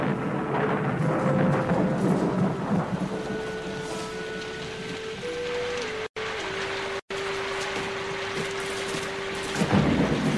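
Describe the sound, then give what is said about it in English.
Steady heavy rain hisses continuously with a deep rumble of thunder rolling underneath, loud throughout, with no voices present. “It's begun to rain, my lord.”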